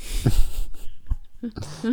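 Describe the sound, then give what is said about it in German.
A voice imitates a long snorting exhale through the nose, a breathy, noisy rush lasting under a second, followed by short voiced bursts that sound like laughter, fairly loud. “Oder dieses einfach dieses lange Schnaufen durch die.”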